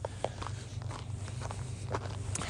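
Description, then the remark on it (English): Footsteps of people coming up, a steady series of soft steps over a low constant rumble, with no talking. “So there's people there's people coming up here.”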